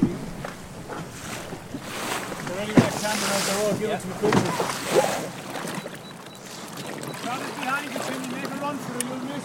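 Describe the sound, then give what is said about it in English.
A rigid inflatable boat rides rough, dark, choppy sea as conditions worsen, with wind buffeting the microphone, waves slapping the hull and splashes, while voices talk over the steady noise. “We are in the Deco Delta, a rigid inflatable boat designed to maintain buoyancy even when large quantities of water are washed aboard.”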